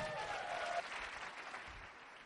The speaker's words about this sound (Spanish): Así que ustedes se merecen un fuerte aplauso.